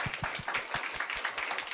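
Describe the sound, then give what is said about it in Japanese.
Shukutoku University students in a large conference room applaud together at a radio program's public class, dense overlapping claps forming a steady, lively wash of sound that stays even for the whole moment, with no talking over it. “実は今、われわれはいつものスタジオを飛び出しまして、はい、なんだか大きな素敵な会議室に会議室、ね、はい来ておりますよ、はい、そして目の前には淑徳大学の学生さんがいますみんな拍手で自分の存在をアピール”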